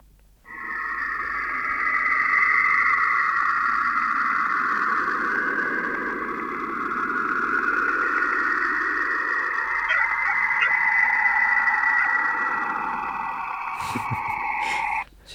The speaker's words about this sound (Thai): อันนี้มันเป็นมันเป็นเสียงจากยานแคสซินีเว้ยพี่ คือเขาอ้างว่านาซาอ้างว่าเป็นการเป็นเสียงของการปล่อยรังสีของดาวเสาร์เว้ย